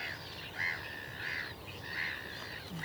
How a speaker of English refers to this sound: Okay, so I think we've just heard our first corn crake in some long grass and cow parsley on the edge of a field. I mean, at the moment it's very hard to hear on the microphones through all the other bird noise, so we should go and get a bit closer.